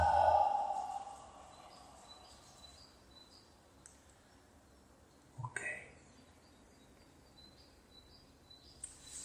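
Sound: deep breath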